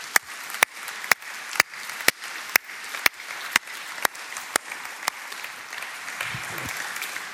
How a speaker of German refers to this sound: Können wir diesen Menschen einen fetten Applaus geben?